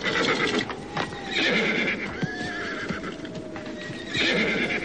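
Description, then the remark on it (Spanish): The horses of four riders neigh and whinny loudly and repeatedly in agitated bursts, with hooves clip-clopping and shuffling underneath; no one speaks. “Algo discutieron entre ellos, mientras los animales relinchaban con coraje.”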